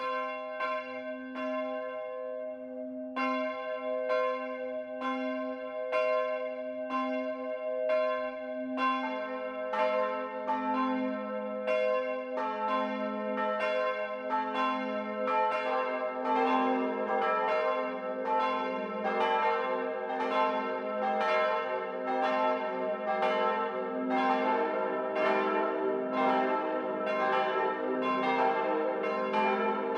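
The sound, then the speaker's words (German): Bells of the Catholic parish church of St. Georg in Brackenbach, Lower Bavaria, ring out the 12 o'clock midday peal, one bell starting alone before others join in overlapping strokes, the ringing growing fuller and denser throughout with no voices. “Das Mittagsläuten kommt heute von der katholischen Pfarrkirche St. Georg im niederbayerischen Brackenbach.”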